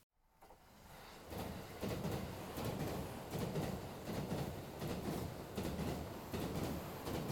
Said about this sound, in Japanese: 朝早く起き満員電車で1時間あれ感染予防って何だっけ